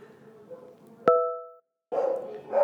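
A single loud bark from a pet dog rings out sharply over a low murmur of background noise, recorded during the day in a city neighbourhood, then cuts to a brief silence before the ambient sound returns.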